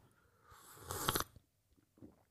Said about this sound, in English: It's just a cup of black coffee. That's it. And I'm sipping it now.